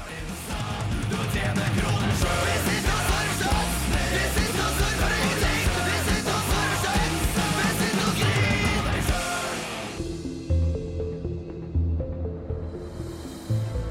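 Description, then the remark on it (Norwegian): Loud, dense heavy rock music plays continuously with a driving beat, then about ten seconds in it drops to a thinner, quieter passage with sustained tones. “først så skal vi ta og høre på … med '…'”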